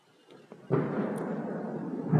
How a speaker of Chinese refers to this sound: 嗯，听到了一些下雨声音，还有打雷的声音，对吧？